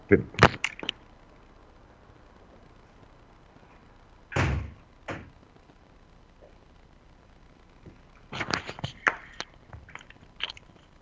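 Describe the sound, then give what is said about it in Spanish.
A window on a 12th floor being handled and shut against heavy street traffic noise outside: bursts of clattering and knocking, a heavy thump midway, then a final cluster of rattles and clicks, over a faint steady background hum. “No esperen que voy a cerrar esta ventana acá porque hay mucho tránsito.”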